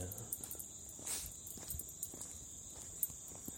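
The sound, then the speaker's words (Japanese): Footsteps walk along at a steady pace, each step a soft thud, while a constant high chirring of many insects fills the background of an otherwise quiet outdoor scene in Tokyo. “ちょっと今、歩き始めました。”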